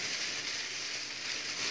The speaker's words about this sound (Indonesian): nah kita juga bisa beda ini misalnya kantong yang dari PE dan dari PP kalau kantong dari PE kan kita biasa taunya itu kantong kresek ya mm. karena bunyinya kayak gini